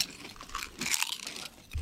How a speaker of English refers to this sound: Ooh. I'm good. It's a nice crunch. Ooh. Oh, that's awesome.